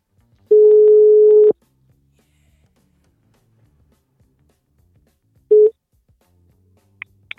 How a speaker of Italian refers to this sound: oh ci siamo squillo singolo